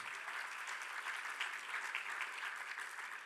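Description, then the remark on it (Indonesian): A church audience claps steadily as applause for the Lord Jesus, a dense, even patter of many hands at a moderate level with no voices, holding for the whole few seconds. “Baik, kita berikan tepuk tangan bagi Tuhan kita Yesus.”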